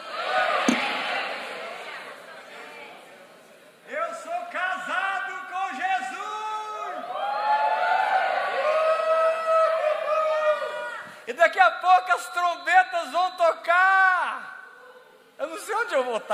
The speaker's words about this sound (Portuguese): Mais forte, todos, crianças falando, adolescentes falando, homens falando, mulheres falando. Forte, o filho tem uma noiva.